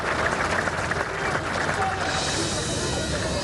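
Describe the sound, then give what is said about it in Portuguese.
A large crowd applauds steadily, a dense wash of clapping that holds at an even level throughout, with indistinct voices mixed into the background, as the Queen's coffin is carried out of a cathedral in Scotland, accompanied by her children. “Os filhos da rainha acompanharam a saída do caixão, que aconteceu sob aplausos.”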